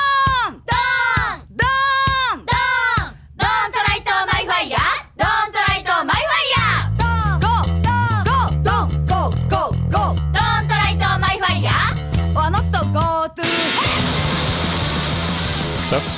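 Aggressive Japanese punk rock by a band from Kyoto, Japan: shrill, yelping shouted Japanese vocals open the track, then pounding drums and a driving bass riff kick in before it collapses into a loud wall of distorted noise, with frequent tempo changes.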